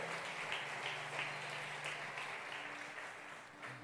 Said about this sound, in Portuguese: Aplauda Ele bem forte, Ele é Deus, aleluia.